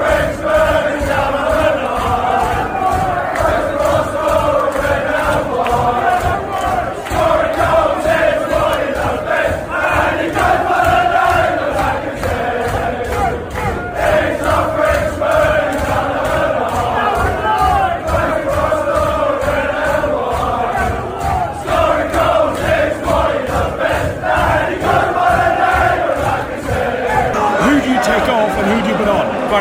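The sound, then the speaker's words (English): A large football stadium crowd chants the Lacazette player song in unison, a loud, continuous roar of massed voices with a steady, rhythmic swell that carries on for the whole half-minute. “Lacazette song's going to go in a minute.”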